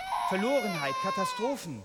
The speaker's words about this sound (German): Ein Baby schreit. Man dreht sich um. Wo kommt das her? Ah ja, dritte Reihe von hinten.